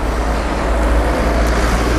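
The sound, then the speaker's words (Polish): A taxi rolls by on a street, its steady engine rumble and tire hiss loud and even throughout, with no voices. “ale zanim to nastąpi przejedzie jeszcze taksówka, a autobus zatrzymał się na przystanku.”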